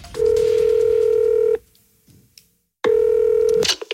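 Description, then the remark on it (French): Telephone line tones as a call is placed to Jean-Michel of the club: a steady electronic beep sounds for about a second and a half, stops, then returns after a pause, clear with no one speaking. “D'ailleurs, euh, on a essayé de joindre avec ah, les équipes RMC J'ai essayé d'appeler ah, euh, Jean-Michel.”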